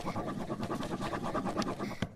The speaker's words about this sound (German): Schmierpapier oder so, so drei Papiere und dann kritze ich so richtig so, oh, so richtig rein und lasse mein ganze Wut, das nenne ich ähm, Papierwutknödel. Ähm, Papierwutknödel, ähm, okay. Also ich kritzel dann so richtig